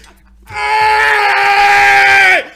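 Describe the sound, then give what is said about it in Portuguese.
A person's voice imitates a dolphin's squeal: one loud, steady, high-pitched cry held for about two seconds, dropping in pitch as it cuts off. There's no talking around it. “O golfinho gritava embaixo da água, mas ninguém via. O ai do golfinho era. Era só um gritinho.”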